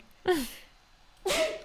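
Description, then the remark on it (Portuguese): Two sharp sneezes about a second apart, each a sudden breathy burst with a short voiced catch, fairly loud against a quiet background. “Ai, vou espirrar.”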